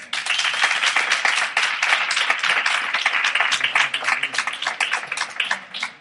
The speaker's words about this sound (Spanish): Un fuerte aplauso.